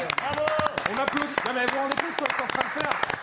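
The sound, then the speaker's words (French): Studio applause on a CNews programme breaks out, scattered sharp claps crackling while several voices talk and exclaim over them throughout, applauding a colleague who succeeded in his challenge of filling up a car with fuel. “On applaudit quand même parce qu'il a réussi son défi.”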